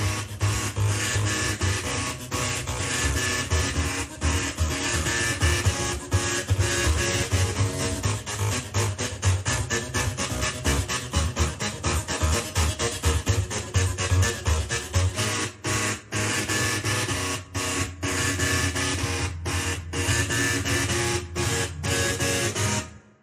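A printer mechanism buzzes and whirs in shifting stepped pitches, playing a pop melody with a steady rhythmic pulse. Loud and harsh, it runs continuously for over twenty seconds with no talking.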